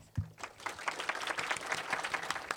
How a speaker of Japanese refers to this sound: どうぞ皆様盛大な拍手でお迎えください